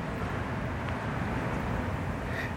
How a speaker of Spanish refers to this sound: Lo que estás escuchando es la ciudad de Guayaquil.